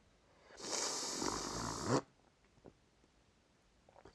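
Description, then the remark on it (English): One long, wet snort through a congested, snot-filled nose lasts about a second and a half, loud, then cuts off into near silence with a few faint clicks. “My nose is full of snot. Snot!”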